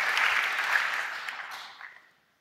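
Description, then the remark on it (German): A short burst of audience applause, dense clapping that starts at full strength, holds briefly, then thins out and fades away within about two seconds. “Wollt ihr vielleicht einen mm. kleinen Applaus ah, ja, ja.”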